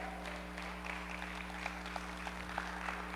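Sparse, half-hearted applause from an audience listening to a preacher talk about God: a few scattered claps patter unevenly over a low steady hum, never building into a full ovation.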